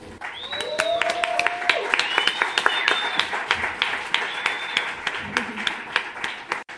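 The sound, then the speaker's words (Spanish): The audience of the show Los Improvisadores applauds steadily for several seconds for a musician, the dense clapping punctuated by sharp individual claps, with a few high whistles and cheers rising above it. “Pedir un fuerte aplauso para ….”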